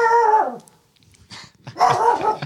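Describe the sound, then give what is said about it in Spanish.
A guard dog named Ramón barks in two loud, drawn-out bursts with a whiny, yelping edge, separated by a short pause with faint rustling. No one speaks. “Dijimos que era perro guardián, ¿eh? Es perro guardián.”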